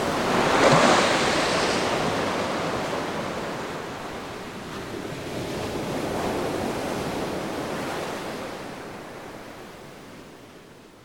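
A steady, rushing wash of liquid as a line of people pour out their bottles at a warehouse dumping point, loudest near the start, easing, then swelling again midway before fading slightly. No voices are heard.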